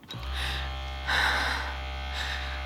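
A vibrator buzzes steadily, switching on almost immediately and droning continuously, its pitch and intensity briefly swelling louder before settling back into an even hum. No voices are present.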